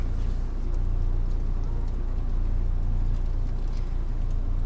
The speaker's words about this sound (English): So now I'm reversing backwards down the parkade, which seems really safe.